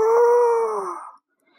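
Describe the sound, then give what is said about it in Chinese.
A single wolf howl, the winged big grey wolf of a children's bedtime story humming softly outside a window: a steady mid-pitched tone that holds for about a second and slowly sinks in pitch before cutting off, with no talking over it. “长翅膀的大灰狼听到了，就轻轻地在窗户外面哼两声：“呜呜。”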